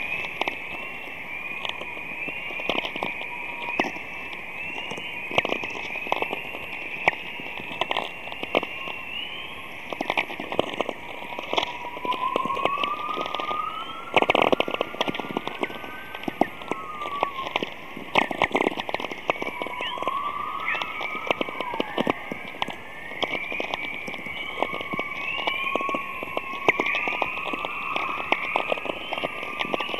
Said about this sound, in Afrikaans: Uh, die klanke wat jy nou gaan luister is die klanke wat auroras maak uh die geval dat iemand 'n opname gemaak van uh aurora verskynsel en ja, die klanke wat jy hoor is van selfsprekend.